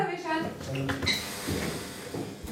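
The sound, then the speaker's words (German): A short electric door buzzer drones for about a second, followed by the clunk and creak of the door from the hallway into the guest room being pushed open, with faint room noise around it, at a railway station mission in a low building beside Würzburg main station. “Nur wenn der Sommer ertönt, lässt sich die Tür vom Flur in den Gastraum öffnen.”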